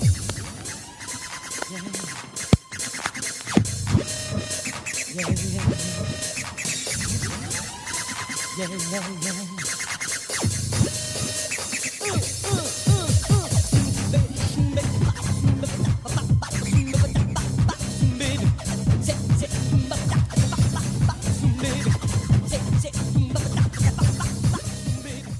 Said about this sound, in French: Il a des sortes de platines aux mains et ça donne ça.